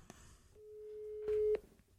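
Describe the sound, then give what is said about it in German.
A telephone ringing tone of an outgoing call, placed during a live recording, sounds once: a steady, mid-pitched beep lasting about a second, getting slightly louder, with a few faint clicks before and after and no talking. “Ach, den Roman anrufen.”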